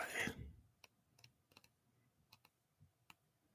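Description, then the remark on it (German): A quick rustling swish of paper book pages being flipped while looking for page 123, followed by a scattering of soft, irregular taps and clicks as the pages settle, fairly quiet, with no talking. “Sorry, das dauert ein bisschen länger, ist hier alles noch analog. das ist noch real. Da fühlt man noch das Papier.”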